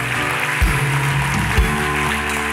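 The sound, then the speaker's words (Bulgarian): An audience applauds the people seated beside them with a steady, dense wash of clapping that fills the whole moment, while low sustained tones and a couple of soft thumps sit underneath. “Ако е твой брат в Исус Христос, ръкопляскай му.”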